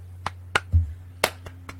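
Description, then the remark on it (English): Several sharp, crisp hand claps land at irregular intervals, fairly quiet, with a dull low thump in between and no one speaking. “I'm going to do a little praying first, and then we'll go with the clapping.”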